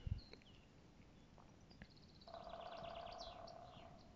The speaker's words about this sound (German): Uh, das war ein Specht in der Ferne.